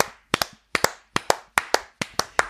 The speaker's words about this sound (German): Ja. Da kann man nochmal applaudieren